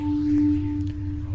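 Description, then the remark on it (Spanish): A steady electronic light-duplicator power-up tone from a zombie video game hums at moderate volume, with two sustained pitches over a low droning bed and a few soft flickering accents, with no one speaking. “Es el de duplicador de luz.”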